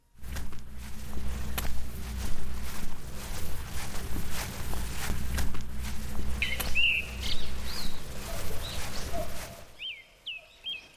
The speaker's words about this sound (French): le chant occasionnel des gazouillis des oiseaux, le bruit de leurs pas et le bruissement des feuilles bercées par le vent